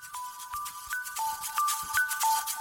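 The theme jingle of the show Vivre le diabète, à la recherche de l'équilibre: bright, bell-like synth notes step through a simple repeating melody over light percussive taps, steady and moderately loud, with no voices.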